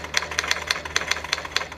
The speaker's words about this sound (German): Das kennst du bestimmt. Ja, das sagt mir tatsächlich was, aber ich kenne es nur aus Filmen. Also im Original habe ich die Schreibmaschine noch nie gesehen oder mal drauf geschrieben habe ich auch noch nicht. Noch nie auf einer Schreibmaschine getippt